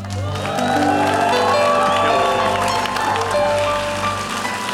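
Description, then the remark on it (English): A church audience breaks into sustained applause with cheers and whoops, giving praise to God, a loud, dense crowd sound lasting throughout, with sustained musical tones underneath. “And if he did anything, give him one more praise.”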